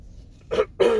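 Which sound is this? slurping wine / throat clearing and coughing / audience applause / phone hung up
throat clearing and coughing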